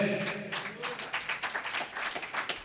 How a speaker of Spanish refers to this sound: Gloria a Dios. Gracias. Que ese aplauso Llega a la presencia del Señor por mi mamá.